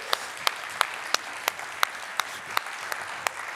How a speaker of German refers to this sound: Nicht, dass jemand jetzt klatscht, weil es nicht schwarz ist, sondern wir klatschen, weil hier Leute gearbeitet haben.